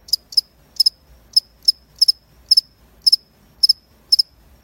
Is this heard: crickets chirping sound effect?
yes